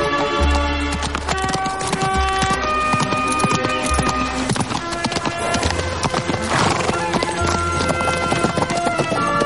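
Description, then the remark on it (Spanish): Steady clip-clop of Shakespeare's donkey's hooves as it walks in the opposite direction at an even pace, loud and continuous for the whole stretch, layered over sustained musical tones and a low bass. “Shakespeare intenta seguirlos, pero su burro camina en dirección contraria.”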